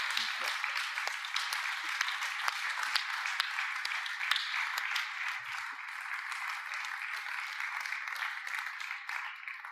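Sustained audience applause, a dense wash of many hands clapping steadily at an even level for the whole stretch, with scattered sharper individual claps standing out.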